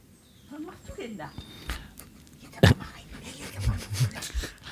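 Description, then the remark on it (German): A dog pants and shuffles around, with irregular breathy huffs, scrabbling movement and a few soft thumps, including one sharper knock midway. “Ich, ich höre, unser Hund ist abgehauen.”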